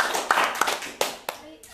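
A small group claps in quick, uneven bursts, with a few sharper, louder claps standing out over a steady patter that fades near the end.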